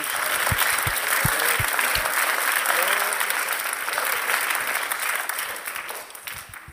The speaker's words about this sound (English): Can we just stand real fast? And let's continue that clap of praise just real quick.